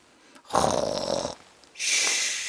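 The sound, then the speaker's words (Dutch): A person imitates snoring: one loud, rasping snore on the in-breath, then after a short pause a thin, whistling exhale. No one speaks. “Dus dan ben je zo aan het snurken.”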